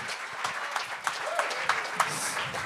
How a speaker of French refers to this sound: OK, bon, Steve Davidson, on l'applaudit! Applaudissez Steve, là!